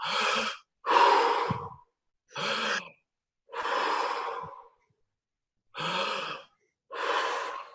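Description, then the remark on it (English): Deep breaths in through the mouth and out through the mouth, the kind called the panic breath, for three full cycles: six loud, airy rushes separated by short silences, each inhale a sharp gasp and each exhale a longer, heavier sigh. No one speaks. “So uh, if you want to go deep with it, it's it's in through the mouth, out through the mouth. You can do a deep one, which I call the panic breath”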